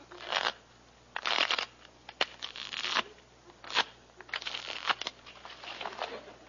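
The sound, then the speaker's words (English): A deck of playing cards being shuffled, with several quick riffling bursts and soft papery slaps over a few seconds, no voices. “Now I'll just shuffle the cards here.”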